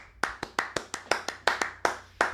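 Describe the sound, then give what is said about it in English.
Someone claps their hands about a dozen times for Red Sox pitcher Nick Pivetta's good game one outing, in a slightly uneven rhythm, each clap a sharp, bright smack that stands out clearly with no talking over it. “Yeah, we'll clap.”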